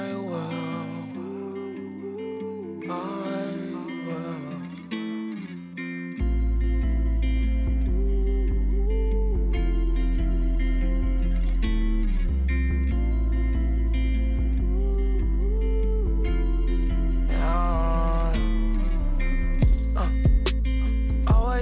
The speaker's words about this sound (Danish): Ja, så øh, jeg synes egentlig ikke, der er så meget andet for, end at høre singlen.